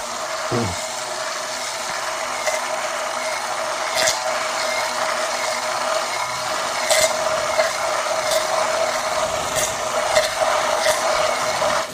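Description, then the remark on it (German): A hand blender whirs steadily while mixing mayonnaise from an egg and oil topped up to 200 millilitres in a tall, narrow measuring cup, a constant motor hum with a strong mid-pitched drone, punctuated by occasional clicks and knocks as the blade scrapes the cup. “Die wird dann aber ungefähr auf 200 Milliliter Öl äh, mit Öl auf 200 Milliliter auffüllen mhm. und dann mit einem Schneidstab langsam zu beginnen.”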